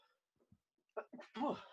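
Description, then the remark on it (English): A person sneezes once during allergy season: a few soft catching breaths build into a loud, forceful burst that trails off at the end. “Bless, Bless you. you.”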